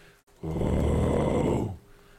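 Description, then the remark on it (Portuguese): A person vocally imitates the deep, rumbling roar of an erupting volcano: one sustained low growl lasting over a second, loud, then cutting off. “Dá uma roncada, assim, um puta barulho grave.”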